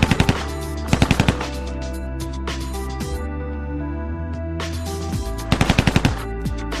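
Maxim machine gun firing in several short, rapid bursts of loud sharp cracks, separated by pauses, over a steady droning musical background with no talking.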